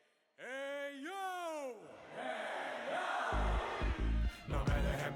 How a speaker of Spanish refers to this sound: Ah, esta gente se sabe el grito de la tribu, dice